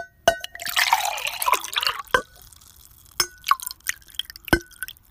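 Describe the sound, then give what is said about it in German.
Water pours into a container for about two seconds, a splashy rush with a faintly rising tone, followed by a few sharp drips and light clinks against the vessel. “Ich mache jetzt Wasser da rein und ich hoffe, ihr hört.”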